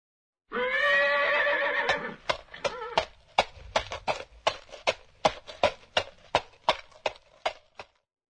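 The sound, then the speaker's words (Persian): A horse whinnies briefly, then its hooves clip-clop in a steady walking rhythm, about sixteen crisp, evenly spaced clops, with no talking. “این صدای پای اسبه رو چطور توصیف میکنن؟”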